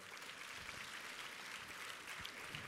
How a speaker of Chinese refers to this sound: 这样，啊，掌声鼓励一下。